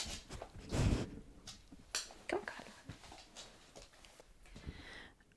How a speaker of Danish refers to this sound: den deler jeg med min hund Carlo, som lige er kommet for at hilse og snuser til mikrofonen.